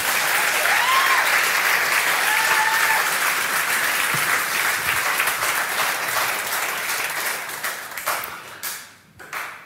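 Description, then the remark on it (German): Sustained applause from a church audience thanking someone for a translation into Russian, dense and steady for several seconds before thinning into scattered individual claps and fading out near the end. “Also nochmal einen herzlichen Dank und Applaus für die Übersetzung.”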